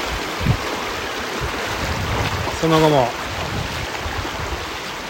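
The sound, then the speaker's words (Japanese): A mountain river rushes steadily through a gorge, heard from the riverbank in late morning, its broad, even wash filling the whole clip, with a brief voice speaking partway through over the water. “こんにちは朝から来ているこの川べり川の渓谷ですね”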